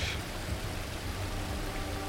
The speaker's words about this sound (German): Von oben fällt euch Regen auf den Kopf.